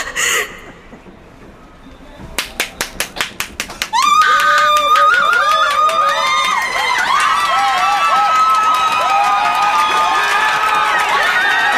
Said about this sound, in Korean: 들리지 않아요? 이 관중들의 성원이! 야구 사상 기립박수를 받은 사람은 상구역이 처음일 거야.